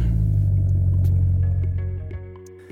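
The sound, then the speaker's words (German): A vintage car engine rumbles loudly, revving with a deep throaty growl before easing off and settling toward the end. No one speaks. “Ich fahre nämlich gerade neben diesem Oldtimer, in dem wir hier sitzen, dem Tomobil”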